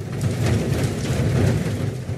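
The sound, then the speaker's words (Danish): Steady rain falling, a continuous dense patter with a low rumbling undertone, fairly loud, with no voices. “Øh, det er når Alt, ja, det er godt, men når alt kommer til alt, utrolig behageligt med sådan lidt regn i baggrunden.”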